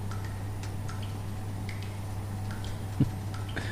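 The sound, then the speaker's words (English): Water drips steadily and irregularly, a series of small plinks over a low constant hum, with one slightly louder drop near the end. Quiet, with no voices. “That dripping might be black nuns forming in the bathroom.”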